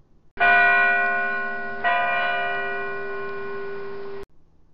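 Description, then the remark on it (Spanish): Two loud, resonant clock-bell strikes about a second and a half apart, each ringing on with a long humming decay before cutting off abruptly. No one speaks. “Y sonó una campana.”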